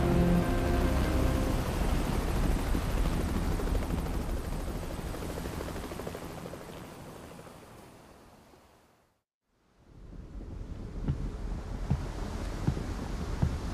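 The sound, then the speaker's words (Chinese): A helicopter circles overhead above a huge ocean maelstrom, its throbbing rotor drone over a steady roar of wind and surf, fading away to near silence before the rushing noise swells back in. No one speaks. “只有在上空盘旋的直升机。能带来一些安慰。”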